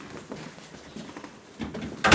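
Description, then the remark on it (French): A house door shuts with a sudden, loud thud near the end, after a couple of quieter shuffling knocks against a faint background. “Je rentrer, je m'assurer que la porte est bien fermée.”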